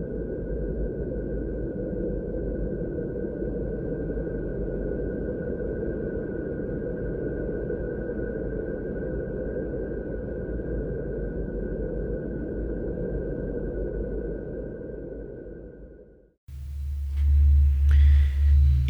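A sonified space recording of Saturn: a dense, eerie droning hum with a thin steady whine above it, holding for about sixteen seconds before cutting to a deeper, throbbing rumble.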